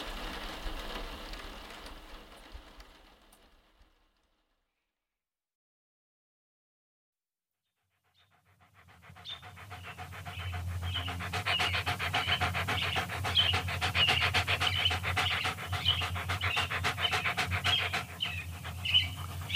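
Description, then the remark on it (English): A pet dog pants rapidly and steadily, loud breathy huffs in a quick even rhythm, following a brief stretch of noise and a few seconds of silence. “That's my dog. He's okay.”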